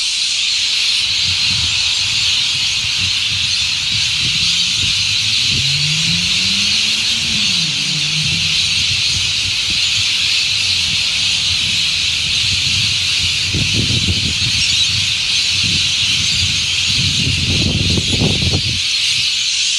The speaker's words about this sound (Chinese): 这里是麦当劳外面，我正在做 Uber 啊，这边有非常嘈杂的鸟的声音，这是夏天的时候会有的特别的景象。它们群聚在一棵树上面，非常大声的一直叫。